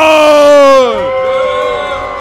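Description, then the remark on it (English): A crowd boos loudly as the competitor called the Barbarian is introduced at an Ultimate Schmoedown event. Many voices hold a long sustained tone that slides downward in pitch before settling into a lower, steadier drone of jeering. “A lot of booze coming in here. Yeah, being greeted by booze.”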